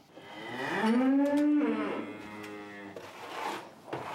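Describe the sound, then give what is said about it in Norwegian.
Cattle mooing in a barn where cows stand in their winter stalls: one long, loud moo that rises and falls in pitch, followed by quieter background noise. “Også når en står på båsen til vinteren, skal dagros, lita god og stjerna ha mat.”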